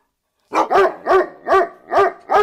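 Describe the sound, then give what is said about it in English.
A big St. Bernard with a small keg of Penderyn around its neck barks six times in a steady, insistent rhythm, each deep woof loud, with no voices around it. “You're a Welsh, St. Bernard.”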